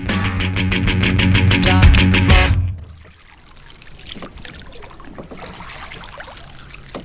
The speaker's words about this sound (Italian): Peccato che non si senta la mia eleganza mentre vogo. Si sente il ritmo. Sì, ma la, per- la perfezione dei movimenti no